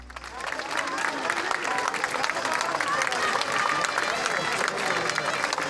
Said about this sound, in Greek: Μια βαθιά υπόκληση και ένα δυνατό χειροκρότημα για τον πρίγκιπα του ελληνικού τραγουδιού.